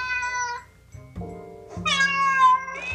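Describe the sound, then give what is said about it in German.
A cat meows loudly, a drawn-out harmonic cry followed by a lower middle sound and another rising, whiny meow, with no talking. “Sie, sie ist eine von den Katzen, die so richtig cool”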